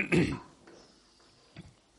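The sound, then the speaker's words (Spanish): A single rough throat-clearing cough from a person with a bad cold bursts out at the start, then quiet breathing follows with one faint, short throat sound near the end. No talking. “Voy a ver si puedo hablar bien porque tengo un catarro terrible. Estoy tosiendo sin parar.”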